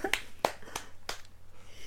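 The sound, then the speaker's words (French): A brief smattering of applause: four sharp, crisp hand claps spaced unevenly over about a second, moderately loud, with no voices present. “Et ben écoutez, comment je suis censée réagir après ces applaudissements”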